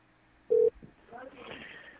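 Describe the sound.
A single short, loud electronic tone from a Skype call being placed to a landline phone, followed by faint, muffled voice-like sounds over the connection.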